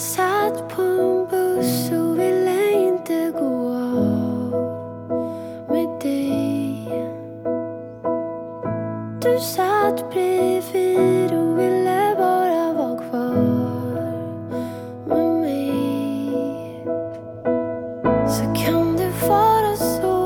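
A pop song plays at steady volume, with a female voice singing a melodic line over bass, synths and a driving beat, with brief pauses between phrases.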